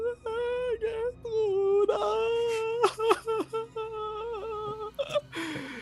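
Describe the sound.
A woman wails and cries close by, her voice rising and falling in long, drawn-out moaning cries broken by short sobbing catches, loud and continuous throughout.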